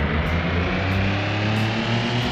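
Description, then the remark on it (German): Racing video game car engines of the classic class with automatic gearbox drone steadily and loudly at the race start, a dense low rumble with humming overtones that holds for the whole moment without pause; nobody talks. “Startet die Motoren. 3, 2, 1.”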